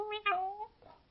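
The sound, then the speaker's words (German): A person's voice imitates a cat with a drawn-out, gliding meow, fairly soft, made while doing a rounded-back cat pose exercise, followed by a brief fainter sound at the end. “Deinen Kopf kannst du dabei ganz entspannt lassen und du machst jetzt Katzengeräusche. Wie macht denn die Katze?”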